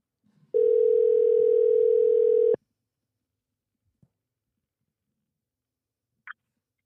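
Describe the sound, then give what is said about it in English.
A loud, steady telephone dial tone hums for about two seconds as a phone call is placed, then cuts off, leaving near silence broken by a couple of faint clicks. “All right, let's call this dude.”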